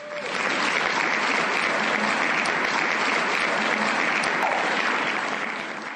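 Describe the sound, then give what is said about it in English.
A crowd breaks into sustained applause, dense clapping from many hands swelling quickly and holding steady for several seconds before tapering slightly at the end. “Let's give him a round of applause.”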